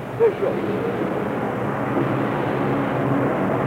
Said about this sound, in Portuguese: Esse barulho que vocês estão ouvindo é exatamente da água escorrendo da porta da inclusa que acabou de abrir para dar acesso a gente ao outro lado do rio. Muita água escorrendo da porta de ferro.